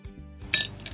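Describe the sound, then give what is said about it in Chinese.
A quick ice-making machine, filled with water and switched on with a button, gives a low mechanical hum, then an ice cube drops out with a bright, ringing clink, followed by a second softer clink as it settles. “倒出了一个冰块，制冰成功。”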